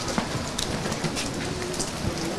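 Heavy rain pours down in Istanbul in a steady, dense hiss, with scattered louder drops and splashes spattering across the surface. No voices.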